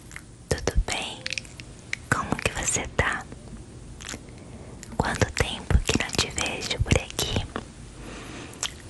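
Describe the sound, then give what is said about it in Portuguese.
ASMR whispering with crisp mouth clicks and soft sibilant bursts, intimate and quiet, continuing in irregular phrases with brief pauses between them. “Podem ser sussurros, unhas batendo em alguma coisa, barulho de embalagem e muitos outros, por aí vai.”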